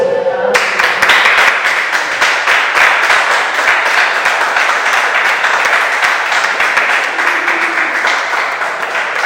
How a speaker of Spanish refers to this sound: ¿No le das un aplauso a Dios?